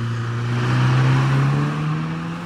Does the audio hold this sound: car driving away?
yes